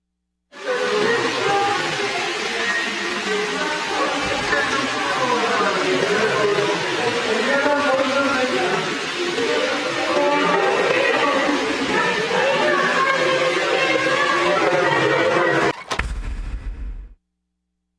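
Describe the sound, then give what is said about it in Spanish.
Water cascading down a landscape waterfall at an IMSS hospital makes a steady, loud rushing roar that holds for about fifteen seconds, with faint voices mixed in, then cuts off abruptly with a brief low thump. “O sea, el ruido del agua cuando cae es sedante, es sedante.”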